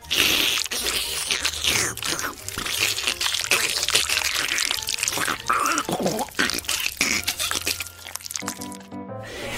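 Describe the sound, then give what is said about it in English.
Wet, slurpy squelching mouth noises made on purpose as disgusting slurps and squelches on the children's radio show Mr. Snotbottom's Busy Bodies come in a rapid, continuous stream of smacks and sucks, loud, with no clear words spoken throughout. “You want to practice your disgusting slurpy squelches?”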